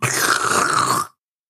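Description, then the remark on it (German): A voice imitates a dental saliva ejector sucking away saliva, making a single steady, hissing slurp with a whistling gurgle that lasts about a second and cuts off abruptly. It is loud. “meine halbe Spucke, die bei dem Satz rauskam, gleich vom Sauger weggesaugt.”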